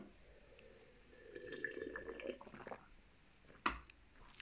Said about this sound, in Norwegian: Husk å drikke vann. Du må drikke litt vann.